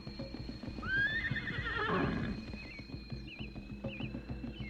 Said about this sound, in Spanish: el hambriento animal empezó a agitarse nerviosamente y a tratar de liberarse tirando con todas sus fuerzas de la cuerda que lo sujetaba para poder aproximarse a la verde pastura se movía de un lado a otro, relinchando, hasta que cayó rendido.